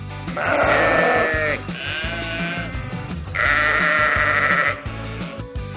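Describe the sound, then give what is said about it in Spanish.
A sheep bleats loudly, three long quavering bleats in a row with only brief pauses between them. No one speaks. “Hola oveja lana, ¿qué tal te fue esta semana?”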